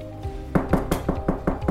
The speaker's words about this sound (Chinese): 嗯，谁在敲门啊？而且还有人喊着：“开门，开门！有没有人在啊？开门啊！我们急着要买东西啊！”